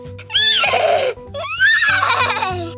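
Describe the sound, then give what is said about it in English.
Two loud horse whinnies one after another from the horses Wesley and Buttercup, who are wearing top hats. Each is a shrill, quavering neigh that rises and then trembles downward, with a brief pause between them and no voices. “Yep, Wesley and Buttercup are horses. Say hello, friends.”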